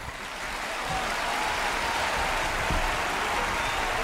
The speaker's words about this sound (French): Euh, bon, stop, c'est terminé. C'est la magie du podcast, hein. je peux stopper un applaudissement quand je veux.